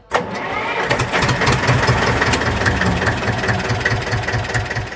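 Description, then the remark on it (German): An old, historic tractor engine fires up with a sharp start, then settles into a steady, chugging idle with a regular low thumping rhythm that continues throughout. “Die Rede ist von historischen Traktoren.”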